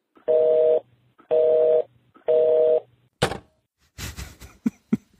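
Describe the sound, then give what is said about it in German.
Three evenly spaced, steady beeps of a phone's disconnect tone after a call is hung up, followed by a few sharp clunks and rattles like a handset being handled. No talking. “Jetzt haben die Schweine aufgelegt, oder was?”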